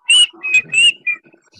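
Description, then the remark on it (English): A person whistles a short, bright tune of four quick notes with small pitch slides, fairly loud, ending in a quieter trailing note, whistled for bardic inspiration in a game. “Can I, uh, can I whistle a tune for bardic yeah. inspiration?”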